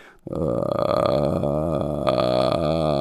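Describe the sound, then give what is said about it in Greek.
A continuous creaky vocal fry sound made as a voice exercise, held for about three seconds after a brief pause, with a low rattling buzz and slowly wavering pitch, steady and fairly loud, with no words. “Ότι είναι μια άσκηση που δεν έχει κάτι ωραίο στον ήχο της απαραίτητα και ότι δεν βιάζομαι να ξεκολλήσω τη φωνή μου από το φράι.”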